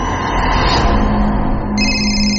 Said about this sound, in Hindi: दोपहर में घर के लैंडलाइन से उसे फोन आया